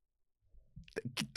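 A voice imitates a sneeze: a soft, building breath, then two loud, sharp bursts in quick succession that break off abruptly.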